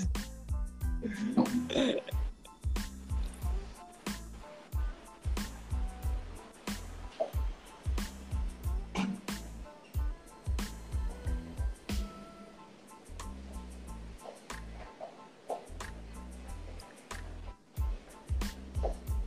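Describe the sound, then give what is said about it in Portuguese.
Heavy rain from a storm pours down in São Paulo outside an open living-room window, with water coming inside: a steady rushing wash of water with frequent sharp splats and drips and occasional low thuds, fairly loud throughout. “eu vou fechar a janela, que começou a chover muito aqui em São Paulo.”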